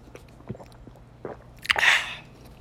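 Drinking sounds: a few soft wet mouth clicks, then a louder breathy gulp of water near the end, with no one talking.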